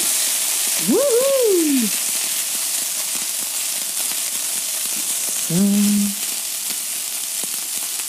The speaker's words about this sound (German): Und ich schüttle meine Pfanne.